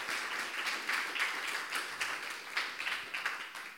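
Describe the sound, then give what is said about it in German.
An audience applauds steadily, a dense wash of many hands clapping at moderate loudness with small swells and dips throughout, and no voices over it. “Applaus”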